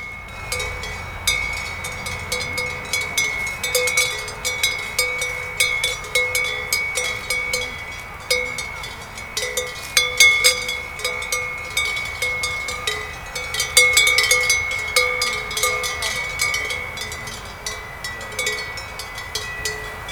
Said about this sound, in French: Donc je vous laisse écouter peut-être encore les sons de ces clochettes